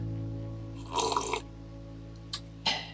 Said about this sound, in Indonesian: okay guys kayaknya tadi gue udah ngomong banyak mending kita seruput ngopi dulu nih guys malam-malam nih cuy enak